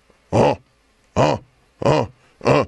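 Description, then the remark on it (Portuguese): A voice imitates how a Tyrannosaurus rex may have called, with four short, honking bursts, evenly spaced and fairly loud, each a brief harmonic-rich grunt separated by silence. “É mais provável que ele fizesse sons curtos e repetidos. Não ia ser um gritão.”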